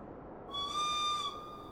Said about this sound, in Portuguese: Ele olhou ao longo da cabine para as portas ainda abertas. Um apito curto avisou de que fechariam em 10 minutos.